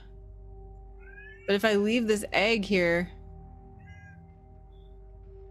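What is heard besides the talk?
domestic cat meowing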